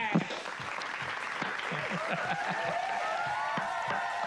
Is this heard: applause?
yes